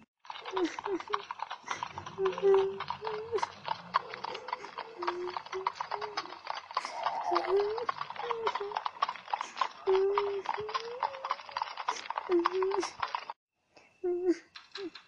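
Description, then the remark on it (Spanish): Steady, rapid clip-clop of a horse's hooves as a girl goes off with the horse, continuing for several seconds, fairly loud, with voice-like tones running underneath before the sound briefly stops near the end. “La niña cerró los ojos y con miedo se fue con el caballo.”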